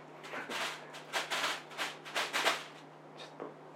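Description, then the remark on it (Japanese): A plastic bag crinkles and rustles in a run of irregular, scratchy bursts lasting a few seconds, with a faint steady hum underneath and no one talking. “パワーがすごいビニール袋ビニール袋”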